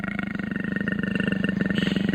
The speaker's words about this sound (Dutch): Ja, dit... dit is een luipaard volgens mij dan oh, niet zo goed hoor. Ja, volgens mij wel.